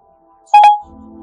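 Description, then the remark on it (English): Two quick electronic phone dialing tones sound loud, back to back, as a call is placed through Siri, then give way to a low, steady buzzing hum like a call line connecting. No one speaks. “So let's uh, make a phone call.”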